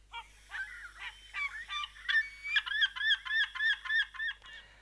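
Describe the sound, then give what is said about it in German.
A seagull calls in a rapid series of loud, nasal, yelping cries, starting with a few scattered notes and building into a steady, rhythmic run of about a dozen clear calls. “Also, es liegt jetzt vielleicht auch an meiner Aussprache, aber ich erkenne in diesen Lauten nicht unbedingt das Geräusch oder das Rufen einer Möwe wieder, was sich im Original ja etwa so anhört.”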